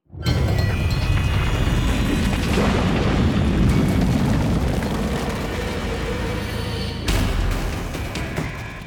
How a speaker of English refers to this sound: the ground opened up beneath them and the high banked walls of the court cracked.